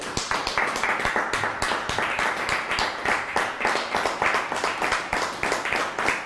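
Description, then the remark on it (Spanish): An audience gives itself a loud round of applause, many hands producing a dense, continuous patter of sharp claps at a fairly even level for several seconds, with no voices heard over it. “Nos otorgamos un fuerte aplauso.”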